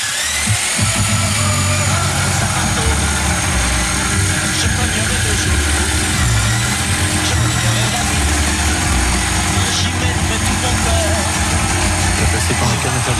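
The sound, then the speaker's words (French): A jigsaw cutting through a wooden plank during DIY work, a loud, steady, harsh motorized buzz that drones on without a break, with a rough, grinding edge running through the whole stretch. “J'ai coupé une planche pour de vrai. Non, mais sérieux, je vous jure, c'est moi qui ai fait ce bruit-là.”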